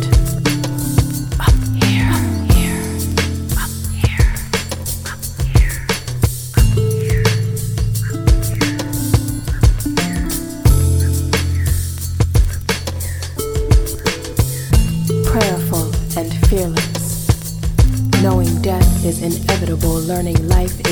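An atmospheric electronic track plays steadily at full volume, with sustained deep bass notes, layered synth tones and a constant pulse of rhythmic hits running throughout.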